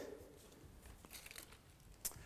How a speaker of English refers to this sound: Okay, so you get the paper out and hold it up so everyone can see it.